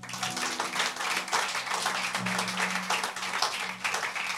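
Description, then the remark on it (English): A church audience claps for Jesus together in a steady, dense burst of applause that fills the whole stretch, loud and continuous, with a low sustained musical tone humming underneath and no voices. “clap for jesus”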